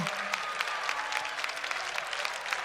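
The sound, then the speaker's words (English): An audience claps steadily in praise of God, a dense, continuous patter of many hands, moderately loud but fairly subdued, with no voices rising above the applause. “This don't sound like y'all's best praise, y'all.”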